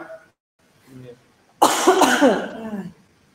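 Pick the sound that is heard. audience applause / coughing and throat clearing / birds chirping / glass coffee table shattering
coughing and throat clearing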